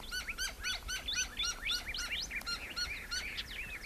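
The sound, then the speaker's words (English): Gila woodpeckers and a gilded flicker call at sunrise at Organ Pipe National Monument in a busy overlapping chorus of sharp, high chirps and trills, repeating rapidly and steadily throughout, moderately loud with no talking. “Those are Gila woodpeckers, and that's a gilded flicker.”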